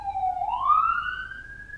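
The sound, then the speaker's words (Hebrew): A police siren wails on Allenby Street in Tel Aviv, its steady tone sweeping upward in pitch and holding high, loud and continuous over a low background rumble, with no one speaking. “ניתן למשטרה שם לעבור.”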